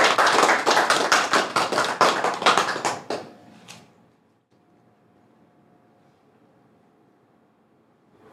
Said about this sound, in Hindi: तो कृपया ज़ोरदार तालियों से स्वागत कीजिए